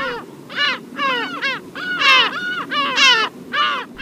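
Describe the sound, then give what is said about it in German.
A gull gives a rapid series of loud, harsh, repeated calls in an uneven rhythm, with no voices present. “Und geschrieben hat er da über die Möwe.”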